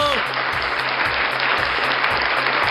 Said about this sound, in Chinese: 唱的真的太好听了，值得掌声。